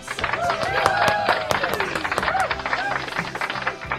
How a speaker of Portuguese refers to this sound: Aplausos para a Laura.